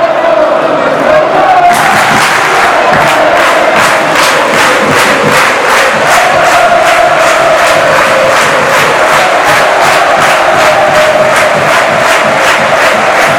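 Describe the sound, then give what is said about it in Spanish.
A packed crowd celebrates in the stands at Castalia during a match their team is winning 5-1, a loud, steady roar of voices swelling after a brief quieter start, with rhythmic clapping beating throughout. “Pues sigue el holgorio en la grada.”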